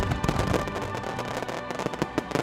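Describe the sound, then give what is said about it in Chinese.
Fireworks crackle and pop continuously, a dense barrage of sharp bursts and booms layered over a roaring background, with no voices heard. “新年是一场烟火，它可以照亮夜空，陪我们迎新送旧。”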